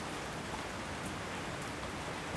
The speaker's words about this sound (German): Wir müssen unter den Baum, wir kriegen ja. hier voll die Husche ab.